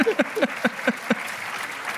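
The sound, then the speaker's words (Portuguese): An audience claps in a steady, moderately loud patter, with a burst of rhythmic voiced sounds like laughter over the first second before the clapping carries on alone and fades slightly; applause for Rui Zinc after a joke. “Um aplauso para Rui Zinc.”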